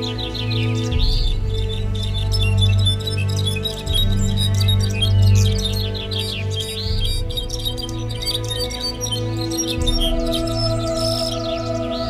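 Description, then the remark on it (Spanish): Birds chirp and sing continuously in bright, overlapping trills and tweets, layered over a steady low musical drone with no talking. “el Tlauquechol, el Xautotot, el Tzinican, el Ayocuan, el Tosnene, el allo y el Cocho, aves de hermosos colores y cantos, y las mariposas, todas vinieron.”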